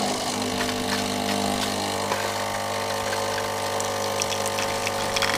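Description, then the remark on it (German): A coffee machine, just switched on in a studio at 5:41 in the morning, runs with a steady, droning pump hum and a low mechanical buzz, with faint clicks and rattles scattered over it, holding an even level throughout. “Und das allererste ist Kaffeemaschine einschalten.”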